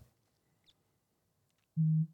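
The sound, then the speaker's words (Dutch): A single short mobile phone buzz, like a vibrating notification, sounds loud for about a quarter second after near silence, with a tiny faint chirp earlier. “Nou, ik zal mijn telefoon even op stil zetten.”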